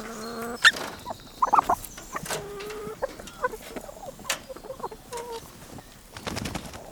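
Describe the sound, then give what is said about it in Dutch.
Several chickens cluck in short, irregular bursts, with sharper squawks and a faint rustling background, on a farm that also keeps pigs; no one speaks. “Jullie hebben ook varkens en kippen.”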